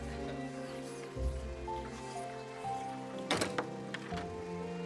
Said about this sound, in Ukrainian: Тут двері зі скрипом відчинились, і метушливо зайшла сухорлява старша жінка з коротким чорним волоссям у великих вінтажних окулярах.